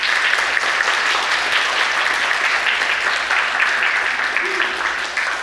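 An audience applauds warmly, with steady, dense clapping that holds at an even loudness for several seconds before easing slightly at the end. No voices stand out over it.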